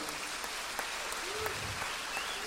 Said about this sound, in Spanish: Es el primer concierto que hace con este grupo. O sea que creo que se merece triple ovación.